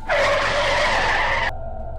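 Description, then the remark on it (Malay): A car's tires skid on the road with a loud, sustained screech for about a second and a half as the car hits something on the road, then the screech cuts off abruptly, leaving a low rumble. No one speaks. “Kereta diorang terlanggar sesuatu Eh, apa benda tu?”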